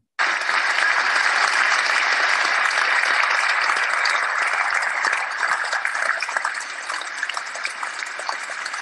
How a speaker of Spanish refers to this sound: Estamos recibiendo aplausos por nuestro buen trabajo. Podemos seguir recibiendo aplausos también.